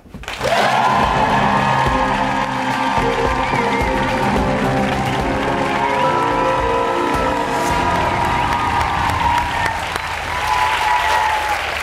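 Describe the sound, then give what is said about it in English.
A studio audience breaks into loud, sustained applause with cheering and whoops as guest producer Will Packer is welcomed, a dense steady roar of clapping that holds for about twelve seconds without fading. “What a great crowd!”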